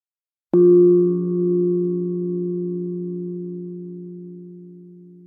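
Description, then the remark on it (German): A singing bowl is struck once, giving a sharp onset followed by a warm, steady ringing tone with several sustained overtones that slowly fade without dying out. No voices are heard. “Nach dem Gong der Klangschale beginnen sie die Geräusche zu beschreiben.”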